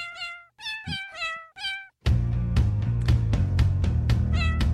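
A cat meows four times in quick, harmonic-rich calls, then music with a steady beat kicks in and more meowing sounds ride over the loud track.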